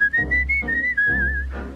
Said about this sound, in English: She's got a country guy who whistles. My whistle is thin, Ain't it a sin. So when I begin,